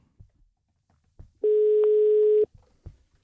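A single steady, mid-pitched telephone ringing tone of an outgoing call to an ordinary member of the public sounds for about a second, loud and unbroken, between faint clicks and soft bumps before and after.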